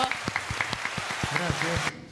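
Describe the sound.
Steady applause from a small group, the claps falling in a quick, even rhythm with some voices mixed in, before cutting off abruptly near the end.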